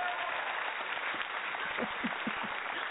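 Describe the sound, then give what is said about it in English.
A steady wash of applause from a crowd fills the whole stretch, dense and even in loudness, with a few faint voices or laughs poking through near the end. “And okay, you get so much more applause than we do. We get like one round of applause.”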